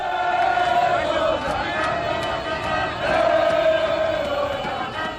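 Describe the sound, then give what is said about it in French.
A large crowd of Senegalese football supporters in the national flag's green, yellow and red chanting together in the streets to greet the African champions, a loud, sustained, rhythmic chorus, with voices swelling and overlapping in an outdoor celebration. “Chant de supporters.”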